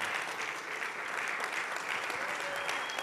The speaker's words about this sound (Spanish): Si le va a dar el aplauso a Dios, déselo fuerte.